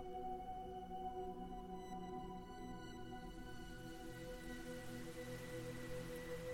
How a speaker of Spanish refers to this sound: voy a permanecer un rato en silencio para que las olas del mar y las frecuencias bineurales que escuchas de fondo terminen de abrirte a recibir el conocimiento más profundo.